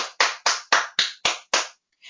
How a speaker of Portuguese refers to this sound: Ah, o rei bateu na porta.